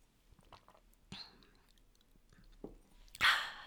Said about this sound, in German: Entschuldigt. Muss mich, ich trinke kurz ein Glas Wasser. Da müsst ihr jetzt durch. Ich schneide das auch nicht raus. Das ist hier alles live.